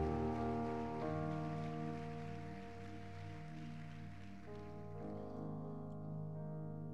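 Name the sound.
loud applause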